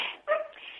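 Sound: small dog barking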